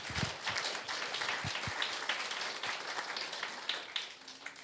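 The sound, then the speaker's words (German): A crowd applauds for God, a dense wash of many hands clapping at once, sustained evenly for several seconds with no talking. “Magst du Gott vielleicht einfach mal einen Applaus geben?”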